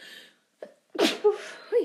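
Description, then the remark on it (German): A single loud sneeze bursts out after a quick sharp inhale, followed by a brief voiced sound and breathy murmurs as it settles. “Gesundheit.”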